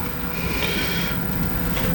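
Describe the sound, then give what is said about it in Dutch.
A printer runs steadily, giving a continuous mechanical whir with a low rumble and a faint higher hum layered over it, with no talking. “En je hoort de printer trouwens.”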